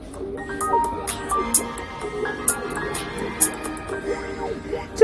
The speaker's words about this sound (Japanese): 今なんか賑やかな声がいっぱい聞こえると思うんですけど